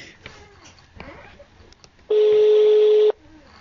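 A phone call rings out, unanswered, with one loud, steady ringback tone lasting about a second, after a stretch of quiet background chatter and noise.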